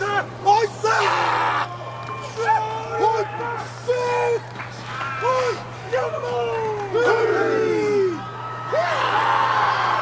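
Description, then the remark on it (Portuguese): The New Zealand national rugby team performs a Maori haka, many men chanting and shouting in unison with forceful, rhythmic bellowed phrases, loud, over a steady background hum. “A gente separou um áudio aqui, justamente do Haka, né, da seleção da Nova Zelândia, e tem a resposta com o Sivatal, que é da seleção de Samoa.”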